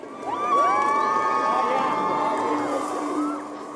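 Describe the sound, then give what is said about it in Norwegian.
A large crowd in the English city of Leicester cheers and shouts continuously for the Queen's Diamond Jubilee visit, with high excited voices and whoops overlapping in a dense, loud roar that stays steady throughout. “Stor jubel var det også i den engelske byen Leicester nylig, der jubilanten selv startet sin del av jubileumsmaratonen.”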